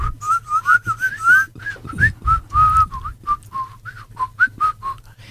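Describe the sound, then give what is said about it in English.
A person whistles a short, bouncy tune, a quick run of clear pitched notes with a steady rhythm, over a low background hum and some soft rustling. “Actually, I was wrong. I can whistle okay.”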